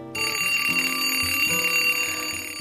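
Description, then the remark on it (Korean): An alarm clock rings loudly and steadily in the early morning, waking someone to go to a coffee class: a bright electronic tone with a simple stepping melody that starts abruptly and keeps going without pause. “그래서 요즘 이른 새벽부터 이 알람 소리에 깨서 커피 학원에 갑니다.”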